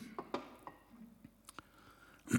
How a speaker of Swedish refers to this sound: Nu ska jag inte dela på glaset, men jag ska i alla fall dricka ur det.